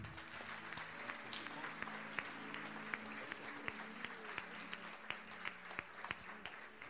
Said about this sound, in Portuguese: Quantos podem dizer amém por isso? Dê um aplauso ao Senhor aí.